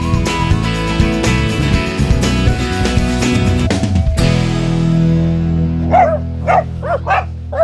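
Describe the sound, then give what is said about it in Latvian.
After a stretch of music that fades into a lingering tone, two dogs, Boris and Rembo, the latter a small black dog from Ukraine, break into a quick run of four or five sharp, excited barks in close succession, loudly greeting an arriving visitor. “kas tie ir, kas mani tik skaļi sagaida.”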